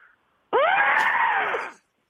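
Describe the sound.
A caller on the phone imitates a frightened elephant with one loud, sustained, strained trumpeting shriek lasting over a second, its pitch bending slightly down before it cuts off.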